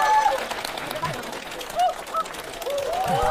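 A crowd at the Da Feng Tian comedy theatre's fifth-anniversary show applauds steadily for about three seconds to welcome a performer, a dense crackle of many hands clapping, with a few short high whistles and cheers rising above it.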